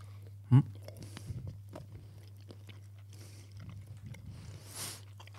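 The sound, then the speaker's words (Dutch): People chewing chocolate bonbons: a sharp bite near the start, then soft, irregular crunches and wet mouth clicks over a steady low electrical hum. “Eten en opnemen kan echt niet.”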